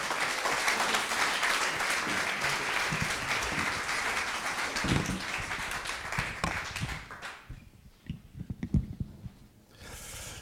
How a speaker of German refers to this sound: Ähm, ihr dürft euch gerne wieder da hinsetzen und wir geben nochmal einen riesen Applaus.